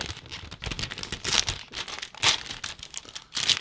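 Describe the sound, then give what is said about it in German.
Gift wrapping paper around a book crinkles and rustles in irregular bursts, with a few sharper crackling surges as it is pulled and torn open, no voices present. “Aber ich lege jetzt keinen Wert drauf, dass das Geschenkpapier noch heil bleibt.”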